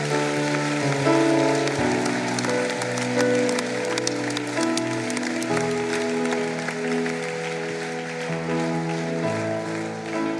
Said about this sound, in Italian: Ora l'applauso finale glielo possiamo fare.